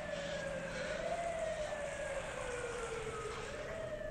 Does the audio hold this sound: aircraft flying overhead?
no